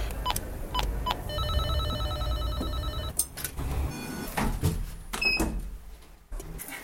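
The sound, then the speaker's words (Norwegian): An electronic doorbell at Pilestredet student housing in Oslo rings with a steady, buzzy multi-toned hum lasting about two seconds, then a few shorter beeps follow amid clicks and background rumble. “Nå skal jeg ringe på til en som bor her, og høre hvordan hun syns det er å bo på Pilestredet studenthus.”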